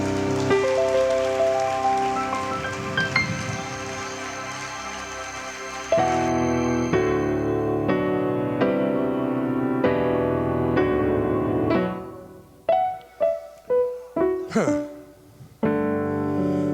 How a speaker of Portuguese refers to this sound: Aplauda o teu Jesus.